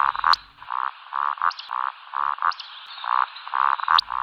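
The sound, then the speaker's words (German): Eurasian woodcock roding display during its spring courtship flight: a steady run of soft, low croaking grunts, punctuated about once a second by a sharp, high squeaky whistle, with no voices. “Das klingt so ein bisschen, als würde man zwei Gummistiefel aneinander reiben.”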